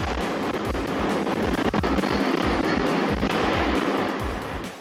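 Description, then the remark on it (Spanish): A parking garage floor collapses in Lower Manhattan, New York, in a sustained, loud roaring rumble, with deep low thuds pulsing underneath and scattered sharp cracks of debris. No voices are heard. “En información internacional, este es el sonido del desplome de un piso en un estacionamiento.”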